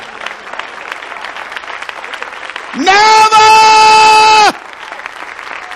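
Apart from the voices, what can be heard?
standing ovation applause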